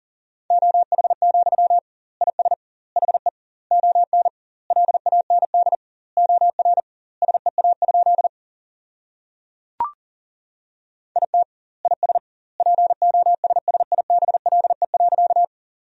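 Rapid Morse code beeps at 40 words per minute in a single steady mid-pitched tone, keying sentences built from the top 500 words in quick dots and dashes, with doubled word spacing between words, plus one sharp click partway through; no voices.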